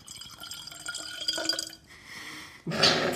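Water dripping and trickling with small splashes, a busy liquid burble that quiets briefly before a louder, brighter gush of pouring water near the end. No voices.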